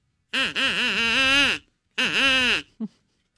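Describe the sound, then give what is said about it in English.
A duck call is blown in two loud bursts, a long wavering honk followed by a shorter one, then a brief final squawk. Nobody speaks. “There's a name on the duck call.”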